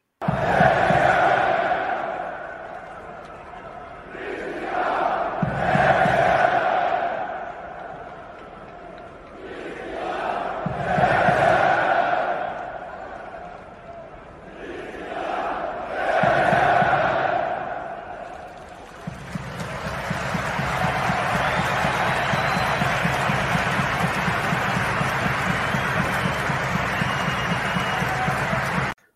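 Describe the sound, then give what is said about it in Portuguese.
A football stadium crowd of Denmark and Finland fans chants Christian Eriksen's name in alternating call-and-response, Danes shouting "Christian" and Finns "Eriksen", four loud swelling shouts a few seconds apart, then a sustained roar of applause and cheering. “Houve uma espécie de jogral ali, um, uma corrente coletiva entre a torcida da Dinamarca e da Finlândia, que é, os dinamarqueses gritavam Christian e os finlandeses gritavam Eriksen.”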